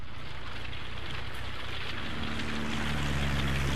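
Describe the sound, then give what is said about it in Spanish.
Japanese propeller warplanes, 108 aircraft launched from four aircraft carriers, drone overhead in a coordinated attack on Midway on 4 June 1942, a deep steady engine hum swelling louder over a broad rushing roar, with no voices. “Los cuatro portaaviones japoneses lanzan un ataque perfectamente coordinado con 108 aviones sobre Midway.”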